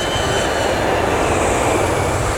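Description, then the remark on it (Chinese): A loud, steady jet roar of an airplane landing on a runway at Songshan Airport in pouring rain, a dense, even rush of noise that holds constant for a couple of seconds with no voices. “在飞机降落跑道的同时，他们看到了一个熟悉的身影，穿着白色夹克，手撑着雨伞，似乎在等着他们。”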